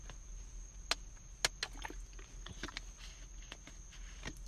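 food or drink, sipping water

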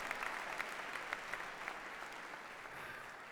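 crowd, round of applause

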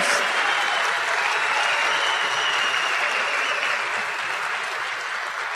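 crowd, loud applause

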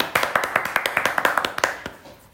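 crowd, hand clapping

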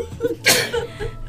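human body sound, sneeze

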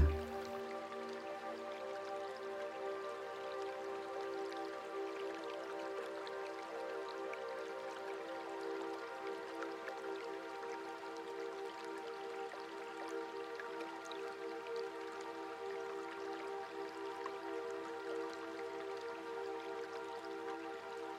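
nature, dripping water

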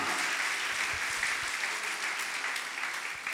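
crowd, audience applause

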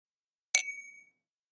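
household object, glasses clinking

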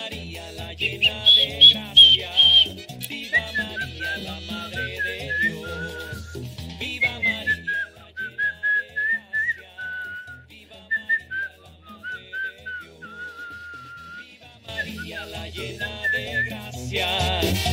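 human body sound, person whistling

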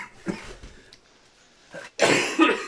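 human body sound, coughing and throat clearing

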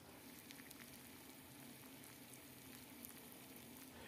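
food or drink, water boiling

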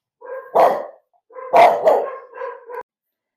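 animal, dogs barking

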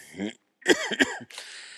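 human body sound, coughing

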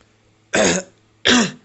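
human body sound, coughing

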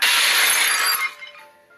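sound effect, glass pane shattering

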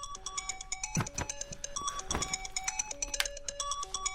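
signal or alarm, mobile phone ringtone

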